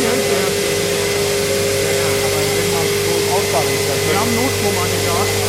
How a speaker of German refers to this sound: An dem Motor steht das Wort Zentrifuge dran. Also da wird dann offenbar der Schlamm zentrifugiert und dann nochmal die Feuchtigkeit, die Restfeuchte rausgeholt. Zentrifuge die Entwässerung.